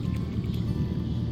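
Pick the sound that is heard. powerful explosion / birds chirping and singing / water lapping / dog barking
water lapping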